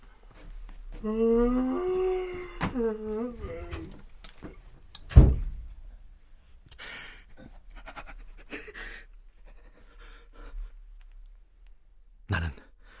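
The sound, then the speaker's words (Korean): A breathy, sighing vocal sound fades into a sharp thud as a room door opens, followed by faint rustles and clicks and another brief knock near the end. No speech. “방문 소리와 동시에 나는 잽싸게 모니터를 끄고 소파 위로 엎어졌다.”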